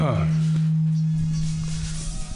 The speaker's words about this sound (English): Damn, that was the reverb. Yeah, we are we were a little hot. A little hot. Coming in, coming in hot.